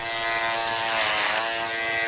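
An electric shaver buzzes steadily, a dense, bright motor hum with a rich stack of harmonics and a slight wavering texture, running continuously at even loudness with no voices.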